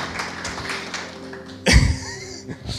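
A church audience applauds Jesus during a worship service, clapping together in a dense, steady patter of many hands, punctuated midway by a sudden louder thump before the clapping carries on.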